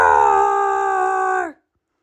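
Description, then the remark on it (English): A single long, drawn-out roar from a human voice imitating a lion in a children's story about Little Brown Bear, as the lion sees his new haircut in a mirror, loud, holding a steady pitch for about a second and a half before sliding down and cutting off into silence. “Then he handed the lion a mirror to admire his work. Roar!”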